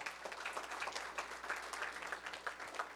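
A crowd applauds steadily for about three seconds, many hands clapping in a dense, crackling wash with no voices standing out, applauding last week's speaker.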